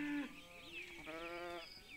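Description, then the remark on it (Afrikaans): Playful goats on a farm bleat: a short call, then a longer, wavering bleat that quavers throughout. Loud and clear, with no one talking. “En soms dans die diere saam met Cindy, veral die speelse bokke.”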